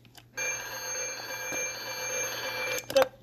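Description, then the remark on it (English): An alarm clock plays its electronic wake-up music, a bright, steady, buzzy tone held for a couple of seconds before cutting off with a short click, fairly loud with no talking. “clock says good morning to you in the morning? and then this.”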